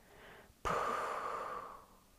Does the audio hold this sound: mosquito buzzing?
no